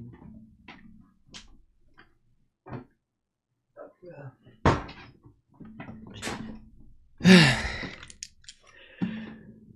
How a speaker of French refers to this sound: Attends, je vais fermer la porte, vu qu'il n'y a pas de.